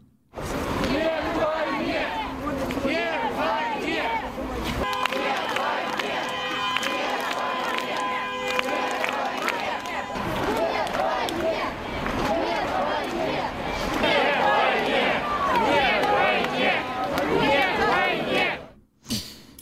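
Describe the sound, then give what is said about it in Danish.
A large anti-war protest crowd in St. Petersburg, Russia, shouting "no to war" together, many voices rising and overlapping in chants and yells, with a steady, loud roar of people throughout and a brief sustained tone in the middle. “Yes, yes, they are shouting no to war.”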